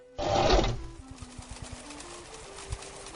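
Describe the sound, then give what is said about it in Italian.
A loud burst of mechanical noise, then a sewing machine running with a quick, regular stitching rhythm over a low steady hum, fading to softer, sparser clicks, at a sewing machine workstation in the La Cruna shop on Via Gattamelata. “Frontale a destra una postazione con macchina da cucire”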